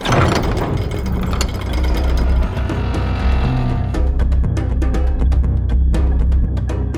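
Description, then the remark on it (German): A steam-driven mechanical door grinds along with a loud, continuous rumble as steam pressure slides heavy bolts aside and escaping pressure hisses softly, while meshing gears clack in rapid irregular clicks that grow sharper and more distinct toward the end. “Klackend griffen Zahnräder ineinander und mit einem leisen Pfff bewegte sich die Tür.”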